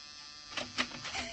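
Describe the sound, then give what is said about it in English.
A door buzzer, tried by police, sounds in a few short, harsh electric bursts over a steady low hiss, the middle buzz the strongest, with brief gaps between them. “Try the buzzer, Muggavan.”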